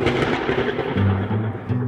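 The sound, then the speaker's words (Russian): A loud, deep rumble of thunder rolls on steadily for a couple of seconds, booming low and filling the space without a clear break. “Нет-нет, это гром гремит.”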